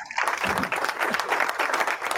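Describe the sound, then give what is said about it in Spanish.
Steady applause from a group of people for someone who made a spontaneous donation, dense rapid clapping that keeps a fairly even loudness for a couple of seconds without pausing. “aplausos para él.”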